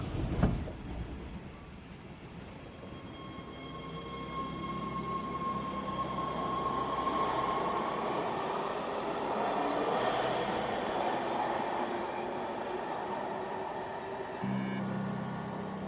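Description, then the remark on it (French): A subway train pulls away from the platform, its motor whining up in pitch over a steady rumble of wheels on rails that builds and carries on for several seconds, with no voices. “Après une demi-heure de transport, le jeune homme perce discrètement le sac de la pointe de son parapluie, se lève, sort en laissant le paquet derrière lui, et le métro repart.”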